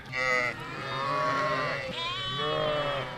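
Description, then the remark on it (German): A flock of sheep bleat over one another in a continuous, overlapping chorus, loud, with wavering calls rising and falling throughout, as the flock is released onto a large pasture. “Naja, nicht wirklich frei, aber die Schafe durften dann zumindest auf die große Weide und äh, die Kartoffeln suchen.”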